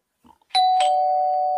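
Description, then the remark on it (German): A doorbell rings with two loud chime strikes, the second tone sustaining and ringing on steadily, preceded by a few faint soft knocks or movements. “Kannst ja. du nochmal rausgehen, nochmal klingeln, bitte?”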